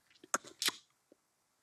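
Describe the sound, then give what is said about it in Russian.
A single spoken word, the word for love in a Bushman language, with several sharp, snapping click consonants woven between short voiced syllables, then a brief faint murmur. “Ну, на одном из бушменских языков слово «любовь» звучит так.”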